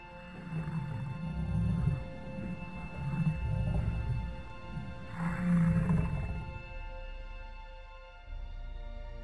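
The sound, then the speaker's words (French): Deep, moaning cries of a group of banthas, large long-horned beasts with thick fur, rise and fall several times in the distance, low and rumbling, over a steady droning background with no talking. “Tu entends leurs cris au loin.”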